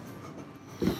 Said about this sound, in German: Ja, also, das war der Stuhl.